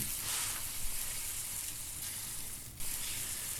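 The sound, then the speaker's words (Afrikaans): Meat sizzles steadily on a braai grill, a dense crackling hiss, with a brief dip and bump near the end as the pieces are turned. No one speaks. “Uh skus, ek gaan net gou my my vleisie draai hierso.”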